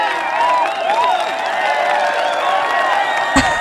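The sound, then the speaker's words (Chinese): A steady burst of crowd applause with cheering and high whoops layered over it, holding at an even loudness for a few seconds before cutting off abruptly. “给我一点掌声。”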